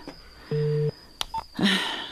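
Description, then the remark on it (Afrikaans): A telephone dialing tone on a call to a car garage that goes unanswered: one steady two-tone beep lasting under half a second, followed by a short higher blip and a brief rustling burst, with a faint high whine throughout and no voices. “En nou antwoord hulle nie hulle foon nie.”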